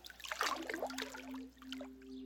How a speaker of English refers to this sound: She threw on her clothes and splashed cold water on her face.